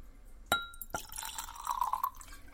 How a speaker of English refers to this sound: All right, let's get some Laphroaig and we'll have a toast. Oh, here's a fancy little glass we can use.